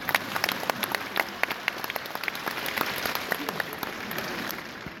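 A crowd applauds steadily for about five seconds, with dense, irregular claps merging into a continuous patter at a moderate, fairly even level.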